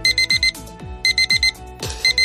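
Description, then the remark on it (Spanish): An alarm clock rings loudly in quick bursts of four sharp, high electronic beeps, repeating with brief pauses, while deep thuds drop in pitch underneath. “¿En qué has pensado esta mañana cuando te ha sonado el despertador?”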